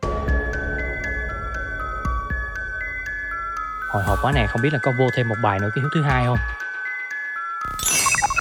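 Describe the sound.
A game wheel spins to a busy, twinkling jingle, then a voice talks over a steady electronic tone before a bright chime rings out at the end.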